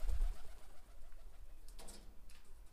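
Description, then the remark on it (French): A group of pigeons huddled in the morning breeze at dawn coo softly in a low, throaty murmur, with a brief burst of wing flutter as one shakes its feathers and takes off, all quiet against a faint outdoor hush. “Endormi, dorloté par la brise matinale, un groupe de pigeons blottis contre les caresses de la brise mortelle, un pigeon secoue ses plumes et s'envole.”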